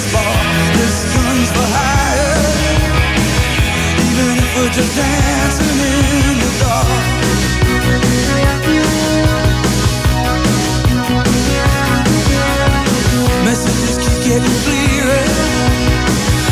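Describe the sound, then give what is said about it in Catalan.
A loud, upbeat pop track with a steady driving beat, synth layers and a sung vocal plays continuously at full volume, sounding like a studio recording rather than a live performance. “aquesta, aquest aquesta cançó doncs es va sentir”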